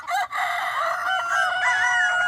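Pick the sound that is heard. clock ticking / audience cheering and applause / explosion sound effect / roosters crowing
roosters crowing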